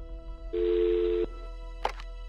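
A telephone line rings once with a steady, mid-pitched tone lasting under a second, followed by a short click as if the call connects. It is an incoming call to the 118 emergency line in Rome at 23:41 at night. No voices are present.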